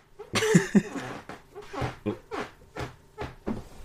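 A chair or seat creaks, a strained squeak early on followed by a run of short, irregular creaks and knocks as someone shifts their weight. No one speaks.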